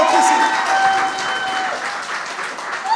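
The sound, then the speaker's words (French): An audience applauds steadily for about three seconds, a dense, bright wash of many hands clapping at a fairly even loudness, with a few faint whistle-like tones mixed into the noise. “Applaudissements”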